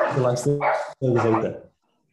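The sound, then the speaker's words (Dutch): Dogs bark excitedly in two loud, drawn-out bursts of yelping barks, separated by a brief gap and followed by quiet. “oh help, mijn honden beginnen in één keer ook wild te worden tijdens deze afsluiting.”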